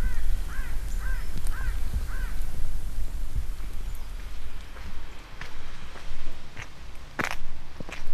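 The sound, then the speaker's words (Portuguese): A crow caws four harsh times in quick succession, fairly clear, over a low outdoor rumble in a fire-burnt, still-smouldering landscape with columns of smoke, followed by scattered faint cracks and clicks. “Camuflado na paisagem, um corvo rasga o silêncio.”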